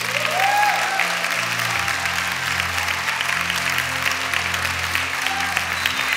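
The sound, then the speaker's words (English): An audience in a church claps their hands for Jesus in a sustained, dense wash of applause lasting several seconds, steady and fairly loud, with low sustained tones underneath and a few faint voices mixed in. “So all the grateful people in this church, take 30 seconds, clap your hands, and love Jesus.”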